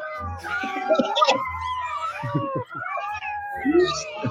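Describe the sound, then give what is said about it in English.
Several cats meow and yowl in quick succession in cat videos being played, their drawn-out, wavering cries overlapping one another, with a low steady hum running underneath. “Launch countermeasures. Cat videos.”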